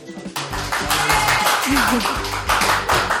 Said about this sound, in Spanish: Y tenemos público aquí. Venga, un poco aplauso.